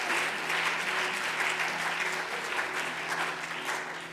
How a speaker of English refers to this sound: Let's give all of our guests a great big hand clap. We're so thankful you're here tonight.